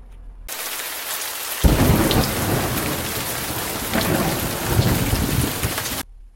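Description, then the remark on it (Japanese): A thunderstorm in the mountains: steady, heavy rain hisses throughout, joined by a deep rumble of thunder that swells strongly partway in and rolls on, with another lower surge later before everything cuts off. “雨も降り出し、雷が鳴り始めた。”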